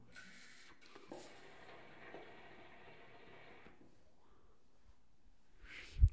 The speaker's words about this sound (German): Äh, ich muss jetzt nochmal kurz an der Pfeife ziehen, weil sonst äh, läuft nicht mehr gut.